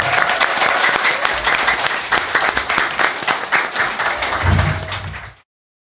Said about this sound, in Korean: 자리 또 지켜주시기를 바라면서 여러분이 또큰 박수로 우리 위원장님 보내주시면 좋을 것 같습니다.